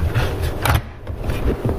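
The tray of a FoodSaver 5800 series vacuum sealer slides back in with a short, scraping rub, like a drawer being pushed shut, followed by a few soft knocks as it settles, with no one talking.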